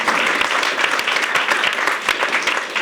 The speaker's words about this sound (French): on peut l'applaudir de Radio choisir.